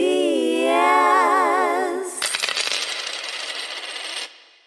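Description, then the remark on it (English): A short jingle of shimmering orchestral chimes with wavering, bell-like tones, followed by a bright, clattering cascade of coins for about two seconds before it cuts off. No voices. “It ends with a coin sound.”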